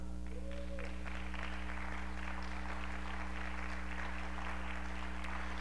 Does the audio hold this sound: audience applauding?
yes